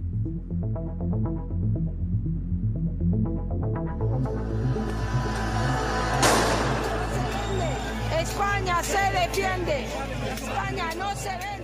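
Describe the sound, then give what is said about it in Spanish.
A loud outdoor crowd of protesters outside the Socialist Party (PSOE) headquarters on Calle Ferraz in Madrid, protesting the PSOE's amnesty pact with Junts; a dense roar of many voices with a sharp burst partway through, rising over a low rhythmic musical bed that fades in beneath it. “Este es el sonido de las protestas ante la sede de Ferraz del Partido Socialista desde que conocimos el pacto del PSOE con Junts, con Puigdemont, para la amnistía, las sedes de los socialistas, especialmente esa de la calle Ferraz en Madrid,”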